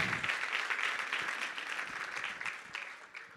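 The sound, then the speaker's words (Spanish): A church audience gives a strong round of applause to the Lord in thanksgiving during a service, a dense, steady wash of many hands clapping that holds at a fairly even level throughout, with no voices rising above it. “¿Cuánto les dan un fuerte aplauso al Señor por esa oportunidad?”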